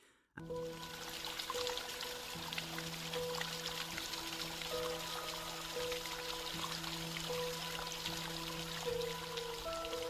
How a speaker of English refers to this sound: Right, see there where the water was dripping over the lip of the cave. That's known as the Petrifying Well.